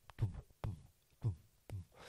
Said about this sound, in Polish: to lepiej będzie działać na waszą podświadomość, jak się skupiacie na grze, a najlepiej, żeby to było tętno przypominające bicie waszego serca albo trochę szybsze.